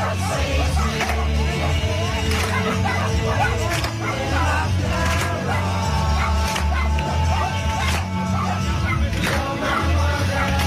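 A crowd of people sings loudly together, and dogs bark several times through the song, their sharp yaps cutting in irregularly over the steady chorus.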